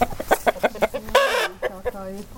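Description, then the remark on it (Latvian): Several speckled, white and brown chickens, kept for country eggs on a farm, cluck in a quick, uneven series of short bursts, with one longer drawn-out squawk partway through. “Jums tās vistas visādas. visādas jā. Raibas, baltas, brūnas.”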